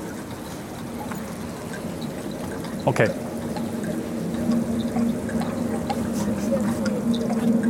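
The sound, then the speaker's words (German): Artificially produced water gurgles and drips steadily throughout, a continuous trickling murmur with a low hum beneath it; a brief spoken word cuts in near the middle. “Ja, es tropft tatsächlich künstlich hinzu.”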